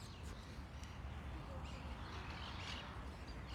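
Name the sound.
bird chirping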